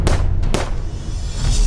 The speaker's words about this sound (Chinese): 在花束挡在苏拉雅的视线的时候，迪耶狗迅速地从外套里面拔出了手枪，对准了苏拉雅。连续开了三枪，